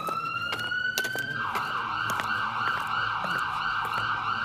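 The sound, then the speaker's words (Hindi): An ambulance siren wails steadily, its tone holding high and then sweeping in a continuous rising-and-falling pattern, loud, with faint street and traffic noise underneath. “ये एम्बुलेंस किसके घर आएगी”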